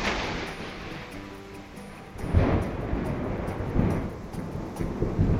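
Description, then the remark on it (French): Steady tropical rain hiss on an October evening in Laos at the end of the monsoon season, with a deep rumble of thunder swelling after a couple of seconds and rolling on low and broad, moderately loud, with no voices. “Et après, il y voir le tonnerre.”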